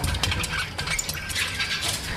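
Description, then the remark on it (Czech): Rapid, irregular scratching and light tapping of a male terrarium animal's small claws against the terrarium glass, a dry, hissy rasp that continues steadily for a couple of seconds over a low background rumble, with no voices. “Tak mluvit asi nebude, ale na sklo škrabal statečně.”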